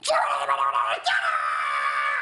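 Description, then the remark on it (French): A voice imitates loud, drawn-out shouting from men going by: two strained, wordless yells, the second held steadily until the end, intense. “Moi, je fais là, les mecs qui passent en, gueulant, j'arrive, je fais.”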